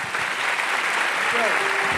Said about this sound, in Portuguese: Vamos aplaudir a Ele no nome de Jesus.